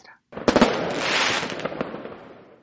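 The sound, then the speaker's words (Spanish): Fireworks and firecrackers go off during the Christmas season, a burst of sharp bangs followed by a dense, sizzling crackle of rapid pops that carries on steadily and loudly before fading slightly. “El olfato, olor a pólvora de los petardos,”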